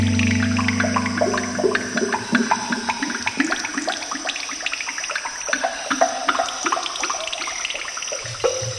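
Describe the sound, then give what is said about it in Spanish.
Water flows and gurgles steadily, like a river or stream, with bubbly splashes running through a continuous rushing wash. It is loud, with no voices. “¿De qué comarca es el rocío andariego en forma de río?”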